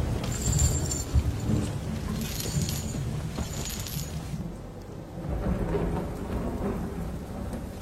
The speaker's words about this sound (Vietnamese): Ngoài trời đổ mưa to, mái tóc ướt của người đàn ông nọ sũng nước, rủ rượi chảy long tông suốt quãng đường.